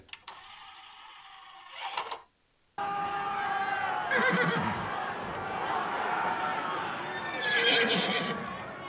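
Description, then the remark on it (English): Loud, repeated neighs and whinnies of charging horses in a game of rugby ring out over a dense, churning rumble of hooves, with a brief cut to near silence before the commotion resumes and swells again. “Did do you just add charging horses to a game of rugby?”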